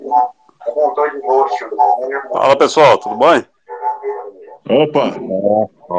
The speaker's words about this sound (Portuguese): Tá, tá, dando eco ainda, mas dá pra te ouvir.